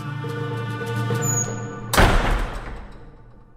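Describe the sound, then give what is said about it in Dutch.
A heavy door slams shut and locks with a single loud, booming thud that rings out and slowly fades, set against a steady low, droning tonal background. “De deur viel dicht en ging op slot.”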